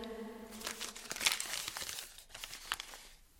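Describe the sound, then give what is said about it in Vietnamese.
Paper crinkles and rustles as a receipt is pulled out, a few seconds of dry, crackling handling noises with sharper crisp snaps amid the rustle, under a streetlamp on a deserted road on a freezing winter night. “Chợt nhớ ra điều gì, cậu lôi tấm giấy biên lai ra.”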